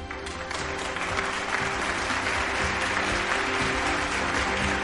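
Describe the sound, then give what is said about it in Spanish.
An audience applauds steadily for about five seconds, many hands clapping in a dense, even wash of sound at a fairly strong level, with no voices standing out. “Por favor, un aplauso.”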